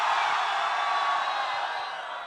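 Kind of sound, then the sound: crowd, audience shouting loudly together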